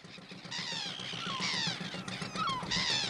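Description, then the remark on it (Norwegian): A seagull sound effect: several shrill, squealing seagull cries repeat in quick succession over a steady low hum, loud, with no one speaking. “Jeg tror vi har hatt måker på alle sanger i dag, jeg.”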